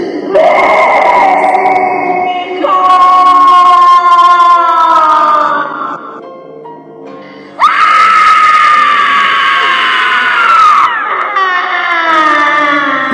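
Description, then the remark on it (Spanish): A long, anguished scream rises and wavers for several seconds, breaks briefly, then returns even louder and more strained before trailing into sobbing wails. Loud, with no other sounds. “Mirando en dirección a su humilde casa, recordó todo lo que había pasado y lanzó un desgarrador grito.”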